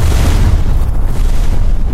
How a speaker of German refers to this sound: eine ziemlich laute Explosion hört.